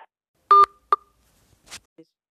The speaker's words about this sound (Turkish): Şey e, telefon kapandı. Sonucuyu bir saatten fazla konuştuğun zaman otomatik kapanıyor. telefon dedi ki yeter arkadaşlar. Yeter artık.